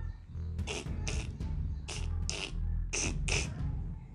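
A big frog croaks in a steady rhythm: raspy, creaking calls that mostly come in close pairs, repeating about every second over a constant low rumble, clear.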